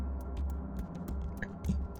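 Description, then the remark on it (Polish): Sharp, hard taps of pointed limbs stepping slowly across stone, spaced unevenly about every quarter to half second, heard clearly over a low, steady rumble. “to słychać nie tyle tykanie, co powolne kroczenie takich szpiczastych kończyn po kamieniu.”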